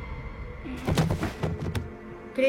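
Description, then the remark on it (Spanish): A door is shut with a few soft knocks and a muffled thud over a faint low background hum, then quiet returns. “Ana cierra la puerta.”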